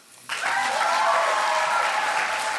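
Applause from a gathered audience at a party meeting, for a Troms AUF speaker, bursts in after a brief quiet moment and holds steady as a dense, even clatter of clapping hands, loud throughout with no voices on top.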